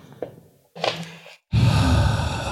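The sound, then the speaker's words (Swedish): A person exhales audibly onto another person a couple of times so they can judge how fresh the breath smells, first a short breathy puff, then a long, loud breath blown out steadily, with no talking. “Och sen så får du, i början av nästa avsnitt ska jag andas på dig, så får du känna om du tycker att min andedräkt är fräschare.”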